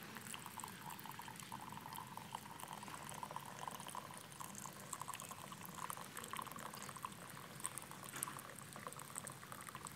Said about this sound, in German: Aber jetzt schaut mal, was mit dieser Tasse passiert, wenn man da heißes Wasser reinkippt.